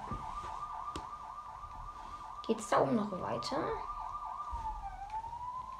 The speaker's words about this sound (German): Police hat einen Einsatz. Ne, Krankenwagen.